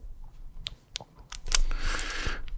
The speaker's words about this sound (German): Eine laut klickende Maus im Büro.